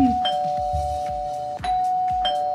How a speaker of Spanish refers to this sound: Ahí está sonando el timbre y parece. Parece.